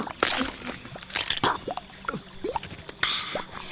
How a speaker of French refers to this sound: Oh, il vient de croquer une bestiole. Ilonomus est un reptile insectivore.